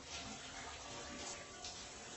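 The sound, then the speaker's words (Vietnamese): Steady shower water runs continuously in a bathroom with a dense, hissing spray, loud, with no pauses and no voices over it; the water has been running for more than twenty minutes. “ấy vậy mà bản thân của chị dọn dẹp trong nhà ngoài nhà đã hơn hai chục phút mà dường như tiếng nước tắm vẫn chưa có dấu hiệu dừng lại.”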